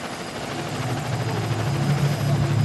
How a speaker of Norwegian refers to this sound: Er helikopteret på vei ut her nå? Ja da, her er litt sånn helikopterlyd.